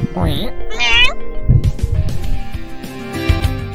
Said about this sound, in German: Weil die schlackern so mit den Ohren, wenn man die wegstößt. Ich finde, das Geräusch klingt halt echt irgendwie so katzenmäßig, was da kommt.